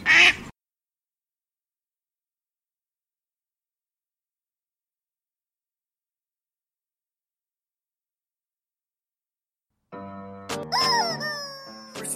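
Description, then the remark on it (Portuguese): A short, sharp duck quack, then a long stretch of silence before a louder burst of nasal quacking near the end, fairly loud. “Falou, meus patos! Quack!”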